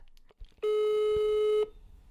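A single steady electronic ringback tone of an outgoing phone call sounds for about a second, clear and fairly loud over faint background noise, with brief clicks just before it starts.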